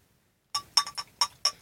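Five bright glass clinks ring out in quick, slightly uneven succession after a brief silence, fairly loud, each with a short high tinkling ring, as a drink from a bottle is poured into a glass. No voices.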